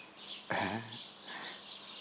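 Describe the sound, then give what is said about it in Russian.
Faint, busy chirping of birds drifts in from outside through an open window, steady and high-pitched throughout, briefly interrupted by a louder low, buzzy sound near the start. “Тут птицы балуются.”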